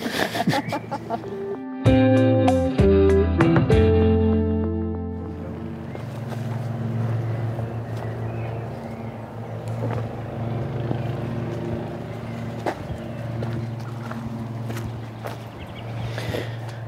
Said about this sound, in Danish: Og øh, der er en øh, græsslåmaskine, der er i gang med at rasere. Den er svær at slippe væk fra.